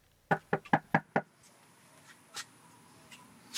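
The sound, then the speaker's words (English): A quick burst of five firm, crisp knocks in an even rhythm on a front door in Austin, Texas, on a blistering hot Saturday afternoon, by a canvasser for Democratic nominee Beto O'Rourke's gubernatorial campaign, followed by quiet background with a few faint, scattered thumps. “is knocking on doors for Democratic nominee Beto O'Rourke's gubernatorial campaign.”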